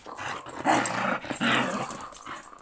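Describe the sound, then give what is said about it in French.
A large female Labrador-shepherd mix dog growls, with two louder gruff bursts that rise into rough barks, the rumbling continuing steadily between and after them. No one speaks. “Euh, c'est un mélange de labrador et de berger.”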